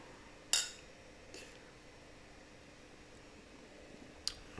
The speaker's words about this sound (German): Mein Lieber, Stößchen.